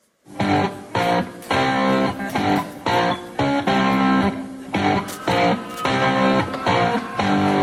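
A loud, gritty distorted rock guitar track is played back through speakers by the production crew while the guitar on stage is faked, thick chords chugging in a steady rhythm with brief breaks, filling the whole stretch with no voices.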